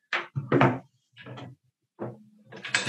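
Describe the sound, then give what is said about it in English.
An O2 (oxygen) tank holding 2200 psi, jammed tightly in its stand, is jostled as someone tries to get it out, giving four fairly loud bursts of clunking and scraping with brief pauses between them and no talking. “Well, so it's good that it's in there because any O2 tank needs to be in a stand because there's 2200 psi in here.”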